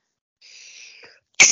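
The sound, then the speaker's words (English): A single sneeze: a soft, breathy wheezing intake builds for most of a second, a brief pause, then a sudden loud explosive burst at the end, with no talking. “and I sneezed right as I was trying to make a point.”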